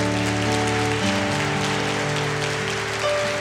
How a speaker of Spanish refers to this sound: un fuerte aplauso.